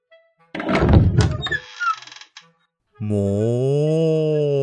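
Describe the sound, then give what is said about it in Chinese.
In an animated story, a pig character opens a door for a cow who is the manager of Mai Dang Niu (麦当牛): a heavy thunk and a brief rattle of the latch, then a pause, followed by a long, steady, low droning tone that holds to the end. “妮妮，你等我一下，我先去开门哦。”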